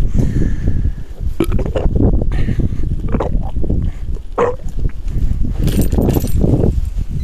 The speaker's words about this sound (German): Es ist aber auch der Wind hier heute.